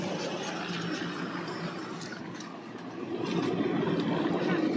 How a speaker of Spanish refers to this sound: Y dos helicópteros ahí, rusos, sobrevolando.